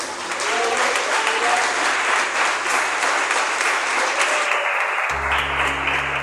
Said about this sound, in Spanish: Denle un aplauso Señor, hermano, por favor.